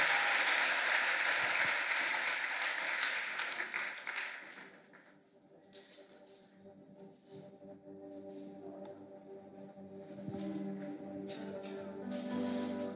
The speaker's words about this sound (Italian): Facciamogli un applauso meraviglioso, ci alziamo e lo onoriamo con tutto il nostro cuore.